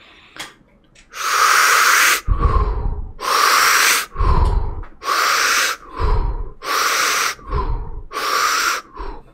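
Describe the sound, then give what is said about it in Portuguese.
Someone demonstrates a forceful, rapid breathing exercise, with loud, rushing inhales and exhales alternating in a steady rhythm, about five deep cycles, with no talking. “Mas tu tá ali respirando mais forte, né?”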